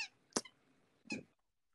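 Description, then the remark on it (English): A dog's squeaky toy squeaks three times in quick, uneven bursts, fairly soft, with short quiet gaps between squeezes and no talking. “Oh, I hear a squeaky toy.”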